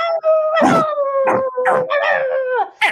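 Several dogs bark and howl furiously together in their kennels at Boyer's castle, a long wavering howl running under repeated sharp barks, loud, with no one speaking.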